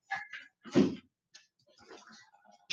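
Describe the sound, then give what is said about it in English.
A dog gives a couple of short, sharp barks, one loud, followed by quieter rustling and faint shuffling noises in the background. “So apologize about the dogs in the background.”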